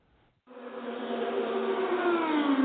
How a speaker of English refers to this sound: Oh, the sweet sounds of race cars once again at the Indianapolis Motor Speedway. It's not May, it's August, but it still feels and looks a little bit like the Indianapolis 500.